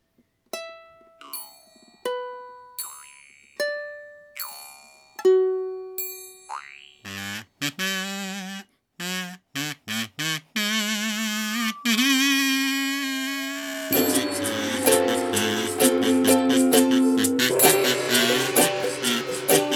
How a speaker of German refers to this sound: klassischen Gong hört man auch nicht oft im Einklang.